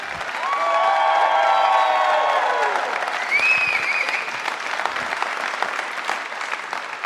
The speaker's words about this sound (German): Und das war gut abgehangen live! Weil mit nach so einem Applaus besser wird's nicht mehr.